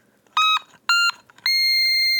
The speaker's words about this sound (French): comment un instrument aussi mignon peut produire un son aussi apocalyptique Mais après, je pense que ça joue aussi à la tonalité que j'ai choisie, non Si je le mets en high, par exemple, regardez.